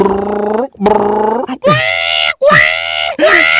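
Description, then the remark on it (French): A voice imitates a growling hungry stomach with four loud, drawn-out moaning groans, each sliding up and down in pitch with brief breaks between them. “Mais oui, mais quand vous vous, vous, faites les jeunes, justement, ton, ton ventre te rappelle d'arrêter. Parce que ton ventre fait...”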